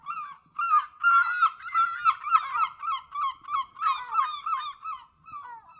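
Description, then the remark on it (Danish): A chorus of British seagulls calling loudly and continuously in the jingle for the Bella og Birdie segment, harsh overlapping cries rising and falling in quick repeated bursts, with no voices. “Nu er du lige flygtet fra alle de britiske måger, Clark. Mm. Men nu kommer de altså igen.”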